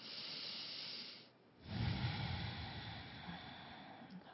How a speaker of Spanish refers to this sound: Respira profundo, exhala, todo por las fosas nasales, vuelves a respirar profundamente.